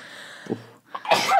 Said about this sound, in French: à tes souhaits.